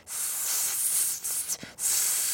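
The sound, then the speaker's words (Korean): Someone mimics a cicada's buzz with a steady, high-pitched hiss lasting about two seconds, briefly faltering and breaking twice near the end before resuming. “매미 소리가 난다라는 걸 인지 못하고 있다가 매미 소리 하자마자 갑자기”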